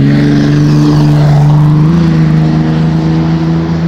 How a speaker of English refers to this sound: What, what just happened is something I've mentioned before, it's, and it was a good example of it, where there was a truck driving in my direction. Like I'm on the sidewalk and there was a truck driving in my direction.